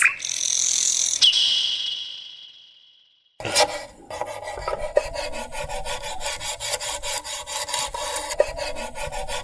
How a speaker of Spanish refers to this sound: Estamos escuchando cómo se afina un violín, hecho de cedro blanco. Sus cuerdas son de cola de caballo y el brasil, que es la vara con la que se da vida al sonido, es afinado con chicle de copal para hacer que suene el violín.